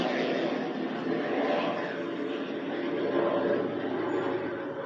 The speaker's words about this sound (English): Looks like a plane, another miracle fly over.